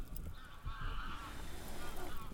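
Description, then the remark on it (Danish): Geese honk continuously in a noisy outdoor chorus by a lake in a forest, several birds calling over one another, with a steady low rumble of wind or water underneath. “Kun omsluttet af træer og skovstier og lyden af fugle.”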